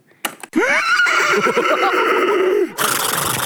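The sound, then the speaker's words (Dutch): A man's voice imitates a horse neighing in a recorded radio fragment played from a personalized button, a loud whinny with a quavering, falling pitch lasting a few seconds, ending in a brief burst of noisy hiss. “Dat is dat, lijkt, dat lijkt, een paard, ja? maar dat ben ik zelf.”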